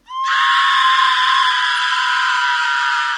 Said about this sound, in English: Stop screaming.